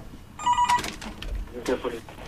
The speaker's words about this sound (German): Oh, wir haben ein Telefon. Ja, das weiß ich aber ähm, nicht, wie ähm, das geht. Ja, einfach abheben. Geh einfach ran.